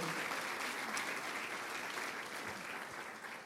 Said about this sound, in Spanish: Amén, aplaudámosle al Señor.